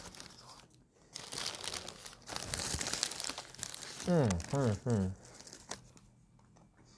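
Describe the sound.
The paper wrapper of a Subway sandwich crinkles and rustles in loud, irregular bursts for several seconds as it is unwrapped, followed by a voice humming three short syllables and a little more rustling.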